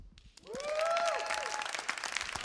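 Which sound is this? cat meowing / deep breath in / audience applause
audience applause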